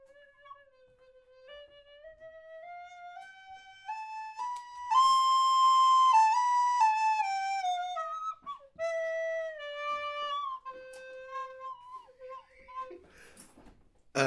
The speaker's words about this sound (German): Blockflöte spielen, die Tonleiter, einmal rauf und runter. Ähm, das mache ich euch mal vor.